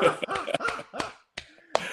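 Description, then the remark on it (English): A few people clap their hands in an uneven, scattered burst of sharp smacks, mixed with snickering laughter, with a short lull before a couple of final claps. “Man, that's awesome, brother hey, we got to clap”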